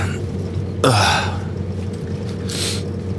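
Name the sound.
coughing and throat clearing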